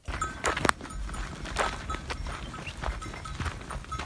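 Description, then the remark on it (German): Small bells hung on walking camels clink and jingle irregularly in time with the animals' plodding footsteps in the desert of Rajasthan, a steady outdoor clatter at moderate volume with no voices. “Na, das ist ein Glöckchen, man hören Staunen, dass sie den Kamelen anhängen, so mhm.”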